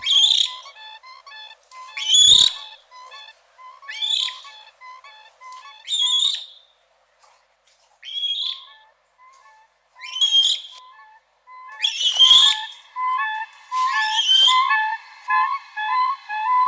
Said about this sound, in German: Ja, klingt ein bisschen anders als unsere hiesigen Kraniche, ist ja auch eine andere Landschaft. Trägt der Laut auch ein bisschen weiter als bei uns, denn da steht ja nicht viel im Weg.